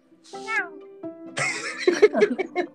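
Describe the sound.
A person mimics a cat's meow, a drawn-out, rising and falling mew, followed by a few more short vocal sounds and chatter.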